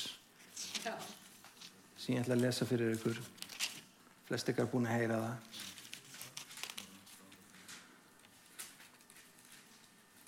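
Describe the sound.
Close, papery rustling as pages of a bible are flipped, coming in scattered crinkly bursts at the start and end, with a person talking briefly in between.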